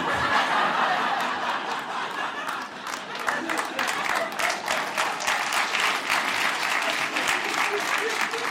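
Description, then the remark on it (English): Steady, dense applause from a crowd fills the whole stretch, with scattered laughter and chuckles mixed into the clapping, holding at a fairly even, full volume throughout. “See, sometimes, sometimes when people start applauding, other people are like, no, we don't want to move our arms.”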